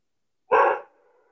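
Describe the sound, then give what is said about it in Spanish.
One sharp, loud bark from the speaker's pet dogs rings out, followed by a brief fading tail and then quiet. No voices are present. “Pues sí, hay que disfrutar la vida como mis perros ladrando, perdón, pero pues si apago el micrófono porque no lo oigan, pues ya no me van a oír a mí.”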